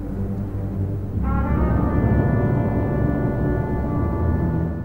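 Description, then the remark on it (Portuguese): Dark orchestral film score: a low rumbling bed, then about a second in, loud sustained brass tones enter and carry a slow, ominous four-note motif, the melody that became Khan's theme in Star Trek 2 after first appearing in Mercenários das Galáxias, with no voices. “essa melodia aí de quatro notas que a gente está ouvindo.”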